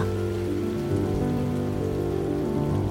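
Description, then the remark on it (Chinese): Steady rain falls without pause in the mountains, heard from beneath an overhanging rock, a dense, even hiss with a low rumbling undertone, holding constant loudness throughout. No voices or other sounds break through. “头顶的岩石像为我撑起的巨伞，我站立之处成了看雨的好地方。”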